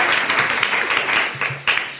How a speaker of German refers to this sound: also auch erstmal Applaus.